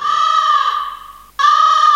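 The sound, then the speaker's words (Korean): An original reference recording of a crow cawing twice, loud: a long, drawn-out harsh call that fades slightly, then a brief pause and a second strong caw. No one speaks. “이거는 거의 까마귀 아니고 도날드 덕이었어요. 까마귀하고 도날드 덕은 다릅니다”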